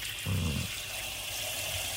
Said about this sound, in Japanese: しばらく水音聞くでも、髪洗ってもらうっていうのは気持ちがいいですね。